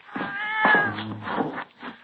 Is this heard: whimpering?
no